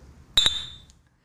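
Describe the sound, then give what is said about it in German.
Two quick glass clinks in a toast at a bank branch on the Reeperbahn, close together, bright and ringing, with a high tone that lingers and fades over about half a second. No voices. “Und Prost. Prost.”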